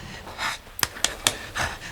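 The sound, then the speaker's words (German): A man breathing heavily in ragged pants, soft breathy exhales broken by three sharp, quick catches of breath, with no talking. “Er atmet.”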